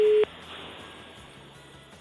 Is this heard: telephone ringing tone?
yes